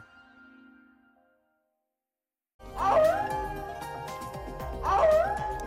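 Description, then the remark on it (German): Coyotes in Los Angeles howling and yipping together in a loud, wavering chorus, with rising and falling wails that swell twice, following a faint tone and a moment of silence. “Heulende Kojoten, und zwar in Los Angeles.”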